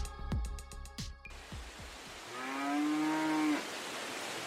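A single drawn-out cow moo, low and steady, rises out of a broad hiss after a few earlier knocks and bumps; no one speaks.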